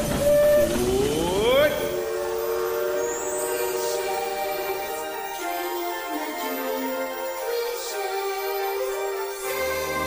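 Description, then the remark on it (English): The Disneyland Limited steam train of the Disneyland railroad pulls away on a grand circle tour of the Magic Kingdom: a rising whistle blast opens, then steady tonal chugging and hiss carry on, fairly loud and continuous. “so let's get on the railroad right now.”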